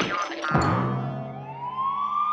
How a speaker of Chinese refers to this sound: 不远，突然传来了警笛声，两只虫子停下了手，对视了一眼。